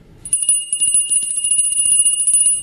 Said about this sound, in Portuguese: Um, um, sino não interessará? Aqui está um bom sino. É, deixa eu ver, deixa eu experimentar.